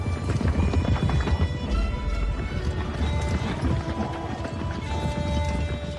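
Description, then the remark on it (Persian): Rapid, loud hoofbeats of a galloping horse, Fereydun's swift horse charging toward Zahhak's palace, pound in a steady driving rhythm with a dense rumbling texture and no talking. “فریدون گرفت این خونه زحاکه دست برد به گرز کل گاویش یه لگت به اسب تیزروش زد و تاخت سمت کاخ”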